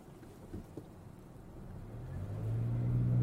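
Steady low rumble of a car interior while driving on a work trip, road and engine noise filling the low end and swelling louder toward the end, with no voices.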